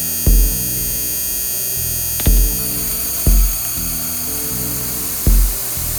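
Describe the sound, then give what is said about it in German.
A thick, reverb-drenched wash of resonant noise, made from a hi-hat sample with heavy reverb added, hums with ringing, pitched overtones, punctuated by four irregular low thumps that bloom into the sustained haze; no voices. “Schön viel Hall drauf, dann kommt eine Resonanz dadurch.”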